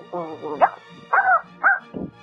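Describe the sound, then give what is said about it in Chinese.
A child's voice imitates a dog barking, giving a few short, high-pitched "woof" sounds in an uneven rhythm with brief pauses between them. “我模仿的动物是猫，喵喵，呃，还有狗”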